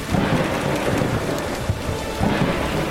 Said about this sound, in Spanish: Mientras que estaba en este barco, de repente entró una tormenta muy fuerte.